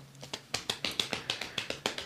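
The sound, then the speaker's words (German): Quick, steady finger tapping on the body, about a dozen soft taps in a rapid rhythm over two seconds, fairly quiet with no voices. “Und immer wenn du sozusagen merkst, dass das Stressgefühl stärker wird, dann, Achtung, klopfen.”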